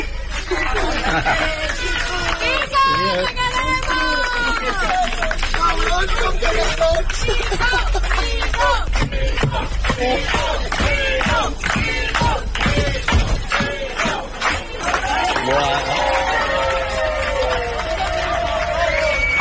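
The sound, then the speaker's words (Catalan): A large neighbourhood crowd in Les Planes, Barcelona, cheers and shouts continuously to bid farewell to the driver of bus 118. Dozens of overlapping voices whoop and call out at full volume, with a single exclamation rising briefly above the din. “Mira, mira, ha baixat tot el barri a despedir”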